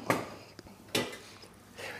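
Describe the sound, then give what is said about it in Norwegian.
A couple of sharp metallic clatters and knocks as a large cooking pot is pulled out from among other cookware in a house to cook red cabbage, with brief rattling between them. “Vi finner fram en stor kjele.”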